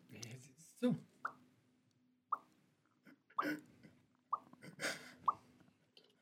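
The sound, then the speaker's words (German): A voice imitates dripping water with a series of short, hollow mouth plops, about six of them spaced unevenly, clear, with soft breathy noises between drops. “Es gibt Leute, die werden so meditativ entspannt, wenn sie Wassertropfen hören.”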